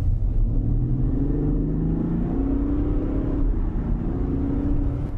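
The 3-liter turbo diesel engine of a Land Rover Discovery D300 R Dynamic SE (221 kW, 650 Nm, 8-speed automatic) rumbles steadily. Its low drone rises and falls in pitch as it revs and accelerates, with no voices over it.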